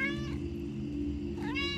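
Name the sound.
cat crying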